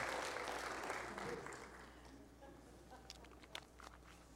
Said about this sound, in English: Come on, give them a hand clap today. Amen.